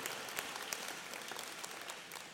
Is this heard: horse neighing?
no